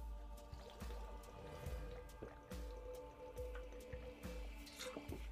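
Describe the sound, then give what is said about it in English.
Someone chugs water from a large bottle: a steady run of wet gulps and glugging, with liquid sloshing between swallows and no talking. “Let, us go ahead and try and, and, and chug a little.”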